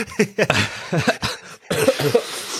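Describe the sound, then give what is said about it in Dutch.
A loud fit of coughing: several harsh, rapid coughs in a row, broken by brief gasps, with no talking alongside. “Eh, maak je toch aan het hoesten.”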